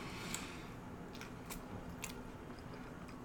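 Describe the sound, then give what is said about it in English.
Chewing of crunchy frozen pizza crust, softer dough in the middle and crunchy toward the end, with about five crisp crunches at an irregular pace over a low, steady background hush. No one speaks. “The dough in the middle is softer, but towards the end you get that crunch.”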